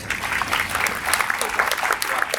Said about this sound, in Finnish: Eli mä en muuta kuin kiitä arvon paneelia. Aplodit teille.